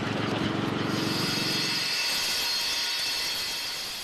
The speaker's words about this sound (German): Die Arbeit mit der Flex ist staubig, laut und gefährlich.